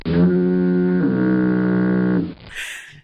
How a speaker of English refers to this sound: I'm going to plug in the, a foghorn sound effect there.